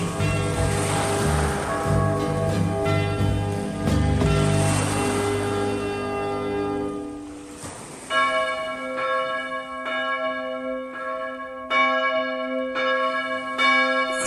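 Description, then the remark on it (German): Church bells ring on New Year's Eve in a full, overlapping peal with rich sustained overtones, fading into a lighter set of bell strikes that continue steadily, with a soft wash of background noise and no voices. “Silvesterglocken.”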